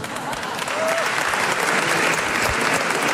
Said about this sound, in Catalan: Ara l'esteu aplaudint a ell o a mi? A ell. Fatal.